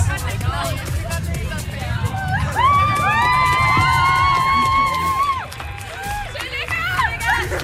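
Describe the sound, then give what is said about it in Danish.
A loud crowd cheers, whoops and claps for an overjoyed, crying young woman who has won a trip to London, with a long sustained high-pitched shout rising above the din, over a steady wash of clapping and excited noise filling the space. “Kan vi lige alle sammen lige give hende en kæmpe stor hånd?”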